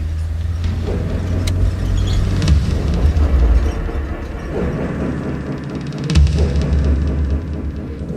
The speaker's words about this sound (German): Peter parkte seinen MG ein paar hundert Meter vom Park entfernt.